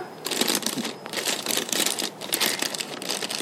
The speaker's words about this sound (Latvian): Man ir metāla karūta, ar ko mēs visu to realizēsim. Es paņemšu pūdeņu, sākšu padruskai biet zemē iekšā.